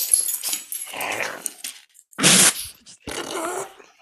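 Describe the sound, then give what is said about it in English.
A dog, Cora, groans and growls through a long stretch, drawn-out throaty rumbles and strained, breathy whines, with a sharp, noisy burst in the middle before a final wavering groan. “Sounds like someone's getting an exorcism.”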